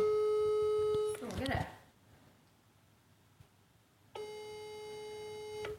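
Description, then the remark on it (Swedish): A phone call's ringing tone plays unanswered: a steady electronic tone, a brief rustle of noise, a few seconds of silence, then the tone returns, clear. “Jag sätter på nu. Får se om hon svarar här.”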